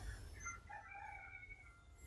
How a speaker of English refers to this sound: Just listen to the birds talk. Well, not that bird though. Cause like I said, that motherfucker don't shut up.